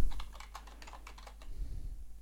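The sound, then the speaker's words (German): Quick, irregular keystrokes clatter on a computer keyboard, a burst of typing that tapers off over a low steady hum, with no voices. “tippt”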